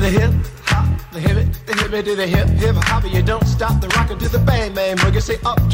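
A snippet of an early hip-hop record, one of the records that shaped hip-hop, plays loud, with a punchy bassline, steady disco-style groove and rhythmic vocals riding over the beat.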